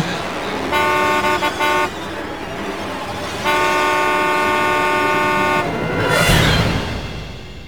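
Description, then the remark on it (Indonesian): A loud car horn blares in bursts as a speeding driver approaching a toll road gate honks as hard as possible: a choppy series of quick honks, then one long sustained blast of about two seconds, over steady road noise with a whoosh near the end. “Refleks aku menyalakan klakson sekencang-kencangnya.”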